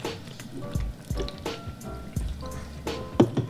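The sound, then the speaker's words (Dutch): Fanta soda being poured into a glass, with gurgling splashes, dripping sounds and a faint fizzy hiss over a few seconds, and no voices. “Zo, krijg nog even een fantatje.”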